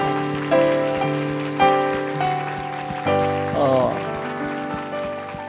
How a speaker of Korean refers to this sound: 우리 박수와 우리의 중심을 담아서 하나님 앞에 영광의 박수 드리겠습니다.